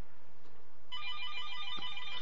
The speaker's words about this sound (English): The phone is ringing. and Perhaps this is a call back from a prank call we did earlier.